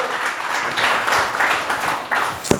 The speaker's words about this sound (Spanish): Dele a Cristo el aplauso, se lo va a dar, por favor.